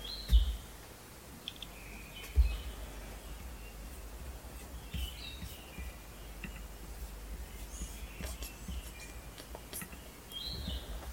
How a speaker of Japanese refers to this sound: 鳥の声すら聞こえるか